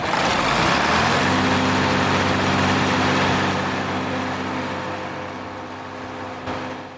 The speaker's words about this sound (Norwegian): at vi hadde fått tak i en eh, ikke miljøvennlig, men veldig kul gammel blå Ford traktor. Ja, eh, en skikkelig gammel, og forhåpentligvis kan du se den på et bilde som er lagt til denne podkasten. Det er en Ford.